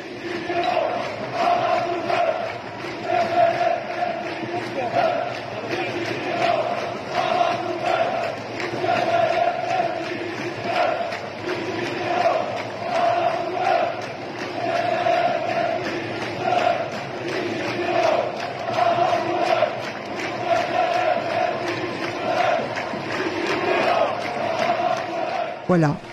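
A large protest crowd in Algeria, during the Hirak movement, chants a bilingual slogan in unison meaning "the generals to the dustbin and Algeria will have its independence", loud and steady, with voices rising and falling in a repeated rhythmic cadence that carries on without a break.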